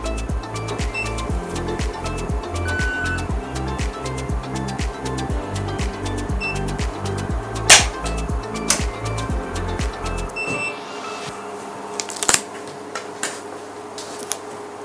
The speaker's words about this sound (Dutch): Ik ga natuurlijk niet weg zonder die boerderijautomaat even te testen. Doe mij maar een stukje kaas.